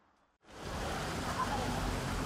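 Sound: car passing by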